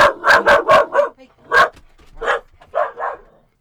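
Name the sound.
dog barking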